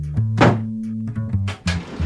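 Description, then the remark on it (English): The door on the right being opened: several sharp thunks and rattles of the latch and handle over a low, steady groaning creak, fairly loud, with no voices. “Open the door on the right.”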